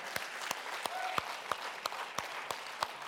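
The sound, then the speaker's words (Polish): An audience applauds, a dense wash of clapping with sharp, evenly spaced claps standing out about three times a second, like a steady rhythmic beat, moderately loud, with no talking. “Podziękujmy im oklaskami też.”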